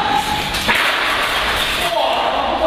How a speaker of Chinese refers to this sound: 在测试坠落的吊扇会造成怎样的破坏力？一、二、三！